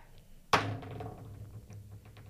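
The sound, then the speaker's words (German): A die is rolled onto a table during a game to decide which song to pick: one sharp, fairly loud clack, then a short fading rattle and a few faint ticks as it settles, landing on a lightning-bolt face, with no talking. “Okay, dann würfel ich, ja?”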